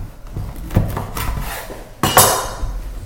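A knife saws through a big loaf of rye bread, with crackly scraping strokes and a few sharp knocks against a wooden board, close by with no talking.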